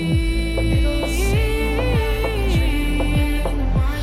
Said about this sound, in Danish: Øh, og inden vi gør det, øh, så får I lige lov til at høre en halvanden minut bid af et af de første numre